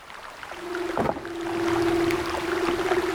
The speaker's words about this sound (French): des léopards de mer ou hein phoques léopards.